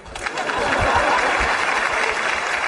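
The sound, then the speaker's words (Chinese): An audience at a stand-up comedy show in Shenyang applauds steadily, a dense crackle of many hands clapping at once, holding loud and even for a few seconds without a break. “下面都坐自己家人儿，那掌声啊都不能停。”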